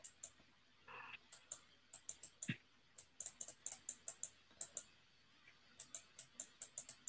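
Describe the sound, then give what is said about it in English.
Sharp, crisp computer mouse clicks during a game of Geometry Dash arrive in quick irregular bursts, several in a row then brief pauses, fairly quiet against a faint background hum, with no one talking. “I can hear the clicks of your yep. mouse.”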